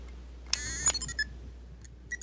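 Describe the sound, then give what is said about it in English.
A toy R2-D2 droid from a Star Wars Trivial Pursuit set, used as a one-to-six die roll, chirps a quick string of electronic beeps and warbles, starting with a bright rising sweep and then several short high-pitched bleeps, landing on number two, with no talking. “Okay, R two, uh, what do you have to say?”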